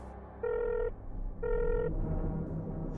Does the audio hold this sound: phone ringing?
yes